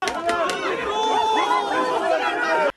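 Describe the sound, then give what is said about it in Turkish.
A crowd of miners from Ermenek cheers and shouts together, loud, with a few sharp claps at the start and overlapping excited voices throughout before it cuts off; they are applauding the gendarmerie, which caught a truck carrying illegal coal. “Madenciler jandarmayı böyle alkışladı.”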